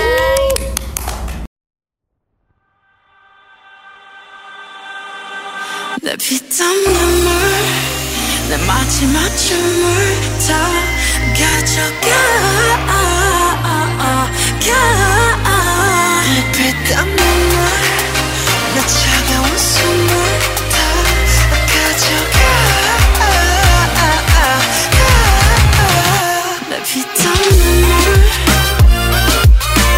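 A K-pop song plays loud and steady: a brief hush, a rising swell, then a full arrangement with a heavy, pulsing bass beat and layered vocals and synths, with no talking over it.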